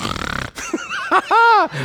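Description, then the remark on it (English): A voice imitates someone snoring after falling asleep in a prayer meeting: a short, buzzy rattling snore, then a few nasal, rising-and-falling vocal snorts and a drawn-out whiny wheeze, loud and with no speech. “And what the worst part is, is when you start to snore.”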